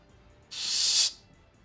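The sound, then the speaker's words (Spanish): A sharp burst of air hisses out for about half a second, like a vacuum-sealed door releasing pressure, loud, then cuts off cleanly into quiet. “suena como si se abriera una puerta sellada al vacío”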